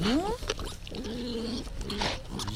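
A wild boar rooting in wet mud: short squealing grunts and snuffles over a steady bed of wet, smacking mud noises, with no talking.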